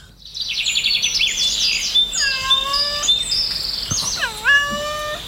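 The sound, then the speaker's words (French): Ambience in a remote forest full of birdsong: overlapping high chirps and trills, plus several clear whistled calls that slide downward, some almost mew-like, over a soft steady background hiss. “Oui, alors cette fois-ci, je me suis rendue dans une forêt un peu plus reculée.”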